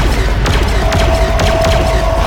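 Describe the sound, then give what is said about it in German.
Four sharp gunshots crack out at uneven intervals, loud, fired at a monster, over a constant heavy low rumble with a thin steady whine running underneath. “Das Vieh schluckt die Schüsse einfach.”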